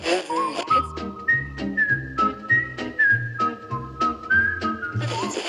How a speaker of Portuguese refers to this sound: E a música de abertura da série, ela era praticamente feita a partir de assobio e um pouquinho de percussão aqui e ali.